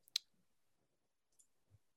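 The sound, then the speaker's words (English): A couple of sharp computer mouse clicks while clicking between many things on a computer: a crisp snap near the start, a softer click about a second later, then a faint dull tap, with quiet in between. “Uh, I'm, I'm sorry, I'm clicking between a huge amount of things here.”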